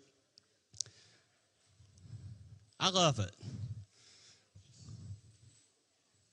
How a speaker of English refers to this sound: People, I can hear the bottles jingling. awesome.